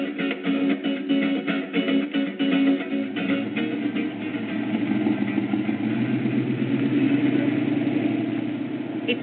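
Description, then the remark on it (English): A car engine hums steadily at low pitch, idling and creeping forward with faint rhythmic rumbling: a car driving slowly through barriers at the El Chaparral gates, crossing the border from the U.S. into Mexico in the evening after dark, with no one talking. “It's already dark outside, and we are crossing the border through El Chaparral gates from the U.S. into Mexico. We are driving through barriers, and there are docks on the side where some of the cars get stopped and searched.”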